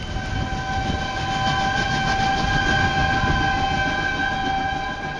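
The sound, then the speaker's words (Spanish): A train departs, its cars full of cattle and poultry, rumbling steadily with a sustained, multi-toned horn or whistle ringing over the low, constant roar of the cars, fading slightly at the very end. “Podrás ver a los comerciantes y el bello colorido de los vestidos de las etnias mexicanas, los vagones llenos de reses y aves de corral, y luego a todos ellos alejarse en el tren fantasma.”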